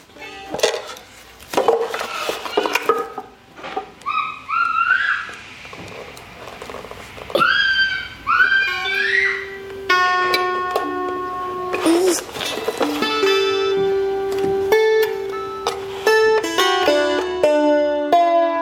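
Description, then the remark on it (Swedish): Bright plucked strings of a kantele, Finland's national instrument, ring out in sustained, overlapping notes, preceded by a stretch of clattering knocks and short squeaky, rising chirps. Steady in loudness, with no talking. “Skulle du kunna visa för mig hur man spelar kantele?”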